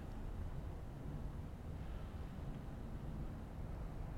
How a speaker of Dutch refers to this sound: Het geluid op de achtergrond is dat van een eh, soort eh, verluchtingsinstallatie of airco van een of ander groot administratief gebouw hier in de buurt. Of misschien van een ondergrondse parking, ik weet het eigenlijk niet.